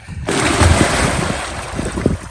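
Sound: waves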